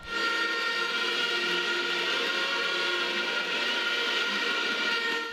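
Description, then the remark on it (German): A huge stadium crowd of Costa Rican fans roars with sustained booing and piercing whistles while the US national anthem plays before a match against the USA, a dense, unbroken wall of noise that stays loud throughout and drowns out the anthem and everything else. “Die Fans buhen und pfeifen so sehr, dass kein einziger Ton der US-Hymne zu hören ist.”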